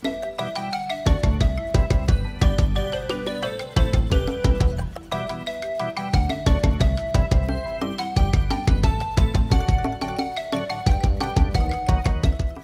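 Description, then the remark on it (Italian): A synthesized General MIDI video game tune plays steadily with punchy bass notes, a bright melodic line and a bouncy, regular beat, loud and continuous with no voices. “il suono del General MIDI.”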